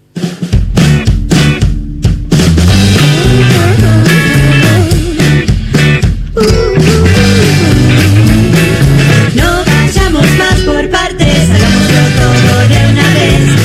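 An indie song from a 2006 album plays at full volume, a steady band arrangement with strong bass and dense layered instruments carrying on without pause, no talking over it.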